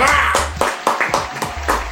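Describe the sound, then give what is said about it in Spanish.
Applause from an audience for Coco Silly, a loose run of sharp clapping bursts with uneven rhythm, fairly loud and steady across the two seconds, with a faint tonal murmur underneath. “Vamos, unos aplausos para él.”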